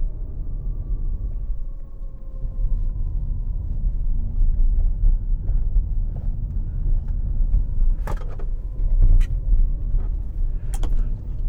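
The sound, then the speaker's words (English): A quiet electric SUV motor whirs with a thin, gently falling whine over steady low road rumble while driving on a small windy road, with a few sharp knocks from bumps near the end. “But as you can hear, it's a bit of a whir of the engine, but pretty quiet really.”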